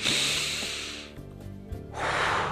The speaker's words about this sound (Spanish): Tome respiración. Suelte.